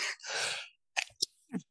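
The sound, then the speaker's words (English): A breathy sneeze: a quick intake, then a broad hissing burst lasting about half a second, followed by a few faint clicks and a soft exhale. No one speaks. “Bless you. Getting, just getting all these sneezes.”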